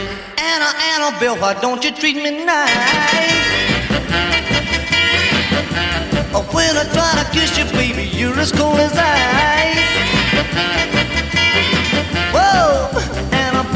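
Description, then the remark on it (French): A loud rock and roll song plays throughout, a brief sparse opening giving way to a full band with a driving beat and a male singer's melodic vocal lines. “Avant de passer à la deuxième partie, on s'écoute deux titres, l'une originale et une reprise française.”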